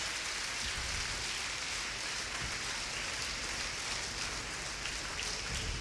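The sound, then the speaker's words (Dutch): A church audience gives the Lord a thunderous applause after a prayer, a dense, steady wash of clapping that holds at an even level for several seconds with no voices over it. “Als u het meent, geef de Heer een daverend applaus.”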